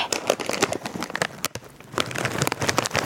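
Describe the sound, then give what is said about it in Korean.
A plastic bag of Korean 'kkang' puffed snack crinkles and rustles steadily for about three seconds as it is handled before being torn open for a radio listening quiz, a busy stream of sharp, crackly bursts with no voices over it. “제가 봉지를”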